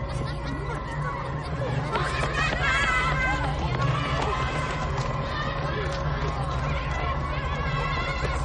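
A dense, steady crowd of uniformed children with school bags and backpacks walking and running in a city, chattering and calling out while footsteps patter and run, a continuous lively babble filling the whole stretch.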